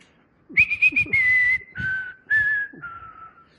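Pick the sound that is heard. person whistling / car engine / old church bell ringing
person whistling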